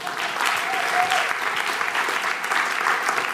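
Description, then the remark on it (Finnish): Steady applause from an audience, a dense, even patter of many hands clapping that holds at a fairly loud level throughout, with no voices standing out. “Annetaan vielä kerran aplodit.”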